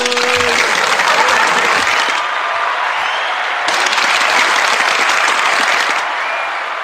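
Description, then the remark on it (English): A crowd bursts into loud, sustained applause with scattered cheers and whoops, the clapping dense and continuous for several seconds, swelling briefly midway before easing slightly at the end. “Ladies and gentlemen, make some noise.”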